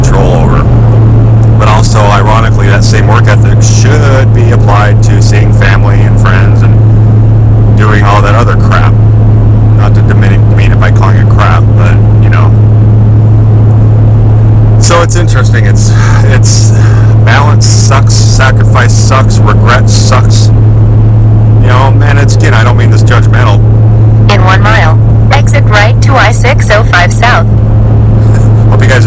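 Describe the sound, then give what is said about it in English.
A steady, loud low drone of a car driving through traffic, heard from inside the vehicle, with a voice talking over the constant road and engine hum throughout. “enjoy my uh, traffic, my driving instructions while we go.”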